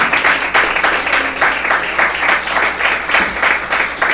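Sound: audience clapping hands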